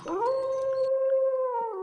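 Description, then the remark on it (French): A single wolf howl rises quickly, then holds a long, steady mournful tone before dipping slightly at the end. It is loud, with no voices. “Et au lieu du cheval à la crinière d'or, c'est un loup gris qui se sauva à toutes jambes.”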